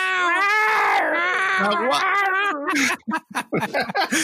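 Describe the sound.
Voices imitate the long, wavering yowls of cats in heat, loud for nearly three seconds, then break off into choppy talking.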